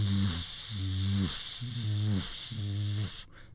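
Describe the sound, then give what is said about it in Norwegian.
A voice imitates a wind turbine's drone with four low, buzzing hums in a steady pulsing rhythm, fairly loud, over a faint continuous high-pitched hiss. “Nei, det, er det er jo ikke en sånn intens støy, men det er en sånn jevn during hele tiden.”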